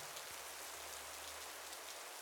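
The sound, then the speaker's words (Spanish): Heavy rain from a thunderstorm that started without warning and fell for over an hour pours down steadily in a dense, continuous hiss, with a faint low rumble underneath. It is fairly quiet overall, and no one speaks. “Lo que oyen de fondo, por cierto, es una tormenta que empezó sin avisar y cayó durante más de una hora”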